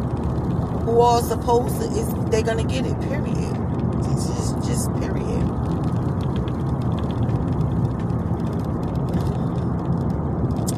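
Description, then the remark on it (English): A steady low rumble of a car being driven fills the background throughout, with the man driving it talking over it in short bursts. “I'm driving, excuse the background noise if you guys hear any background noise or whatever.”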